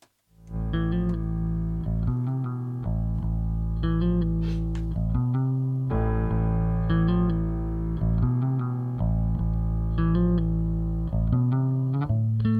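A song plays steadily: sustained, effects-laden electric tones with a chorused, slightly distorted sheen over a constant low drone and recurring bursts of brighter chords. No voice stands out.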